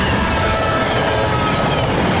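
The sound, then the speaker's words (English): A train rumbles past, a loud, steady roar of wheels and engine filling the whole stretch without letting up. No voices are heard. “If a train is approaching, don't risk your life trying to beat it, because beating the train is a deadly game.”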